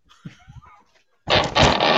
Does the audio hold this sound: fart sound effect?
yes